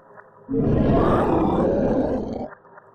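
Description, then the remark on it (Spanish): A deep, rumbling growl coming from the area of the caves swells suddenly and holds for about two seconds before cutting off, loud and guttural with a rough, beastly texture, with no voices around it. “Un sonido, como una especie de gruñido, salió de la zona de las cuevas.”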